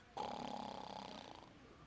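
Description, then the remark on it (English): A man imitates a snore with his voice: one drawn-out, rattling, buzzy breath lasting over a second, fairly loud, fading slightly toward the end. “Husbands, do you go and sit on the couch after you eat dinner and go to snoring?”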